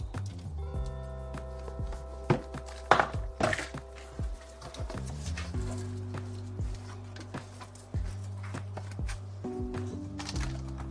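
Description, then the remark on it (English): Items being pulled out of a drawer: irregular knocks, clunks and rustling clatter, busiest in a brief burst, over a steady humming, musical tonal background. “I'm just emptying out the, the middle drawer.”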